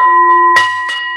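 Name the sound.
meditation bell ringing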